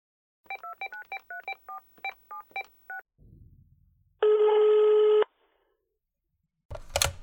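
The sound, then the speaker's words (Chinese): About eleven quick, crisp telephone keypad tones in an uneven rhythm, then a low rumble, a single sustained electronic ring tone lasting about a second, and a sharp click at the end, as someone dials a phone to call their brother. “我现在就给我哥打个电话，他一定知道怎么帮你维权。”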